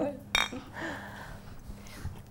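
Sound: beer glasses clinking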